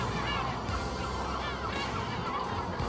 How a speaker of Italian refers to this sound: La Medina, città vecchia, è circondata da alte e spesse mura moresche. Per accedervi ci sono delle torri con grandi porte d'ingresso. Sono salito su una di queste torri ed ho fatto alcune riprese circondato ininterrottamente dai gabbiani.